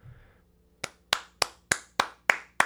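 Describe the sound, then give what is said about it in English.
A single person claps seven times in a steady, fairly quick rhythm, each clap sharp. A brief low murmur comes before the claps start, and no one speaks. “This is my round of applause for everybody who's done who has master's degrees because that freaking that stuff's freaking hard, dude.”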